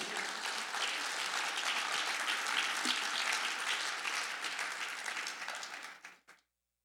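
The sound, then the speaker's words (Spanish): A church audience bursts into sustained applause for Jesus during a sermon, a dense wash of many hands clapping steadily for about six seconds before it abruptly cuts off. “Sella esa palabra y dale un aplauso a Jesús.”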